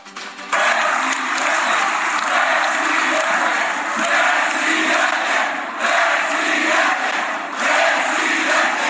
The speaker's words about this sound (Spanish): El gobernador de Jalisco, Enrique Alfaro, encabezó la inauguración de la cuarta convención estatal de Movimiento Ciudadano, en la que fue recibido con gritos de presidente, presidente.